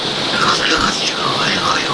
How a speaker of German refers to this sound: Ja, es hat circa zwei Stunden geregnet. Ich glaube, die Folge, die wird hart zu hören.